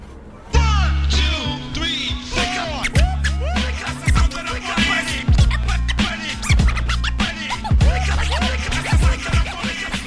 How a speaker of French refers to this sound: la scène où on voit euh, … qui mixe depuis sa fenêtre.